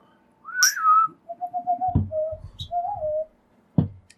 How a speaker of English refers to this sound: Give a little whistle.